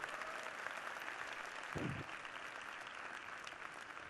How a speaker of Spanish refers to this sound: ¿Quién de aquí es la primera vez que sube un avión? Eso es un aplauso, eso es un logro, eso es realmente lo que estás haciendo.